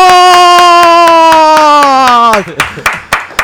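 Steady, rhythmic hand clapping, about four claps a second, runs beneath a long held vocal note that slowly drops in pitch, then the claps continue alone for a moment.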